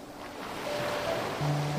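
Broad, steady wash of sea surf rolling onto a fine-grained white sand beach and running back, a continuous rushing hiss that swells slightly, with faint low tonal hums underneath and no voices.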